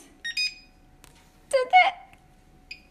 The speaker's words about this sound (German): Also, es kann sich nur noch um Sekunden halten, bis der Wecker klingelt. 4, 3, 2, 1.